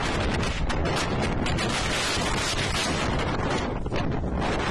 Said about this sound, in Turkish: Zaman zaman rüzgarın da etkili olduğu İzmir'in Dikili ilçesinde öğle saatlerinde deniz üzerinde hortum oluştu. Kısa sürede sahile ulaşan hortum tatilcilere korku dolu anlar yaşattı. Şemsiyeler uçtu, ağaçlar savruldu.